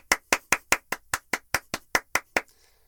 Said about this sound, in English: Okay, we're done clapping hands.